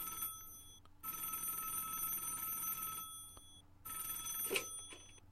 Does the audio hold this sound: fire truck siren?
no